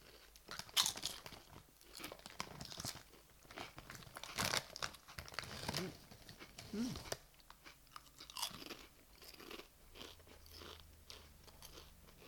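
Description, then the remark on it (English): Vegetarian kebab-flavoured crisps being tasted, crunched and chewed, with irregular, repeated crackly bites and rustling munching that continue throughout at a moderate volume. “Crunch is good.”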